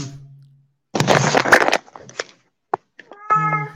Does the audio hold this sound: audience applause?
no